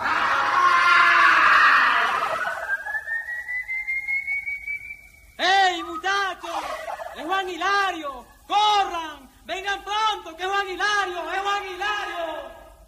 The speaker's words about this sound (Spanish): Rueda varias veces por el suelo, pero continúa defendiéndose hasta que, agotado y ya sin fuerzas, lanza un último grito y cae desmayado frente al tranquero de los malabares.